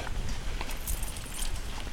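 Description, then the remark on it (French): Heavy hooves of two Ardennes draft horses clop in an uneven rhythm on a hard road as they pull a cart near the Château de Charmois, over a steady low rumble like cart wheels rolling along. “charrette tirée par deux beaux percherons, je dirais, c'est quoi comme chevaux Des Ardennais Ah d'accord, c'est pas du tout des percherons.”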